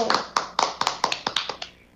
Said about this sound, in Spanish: Démosle un gran aplauso a don Bosco.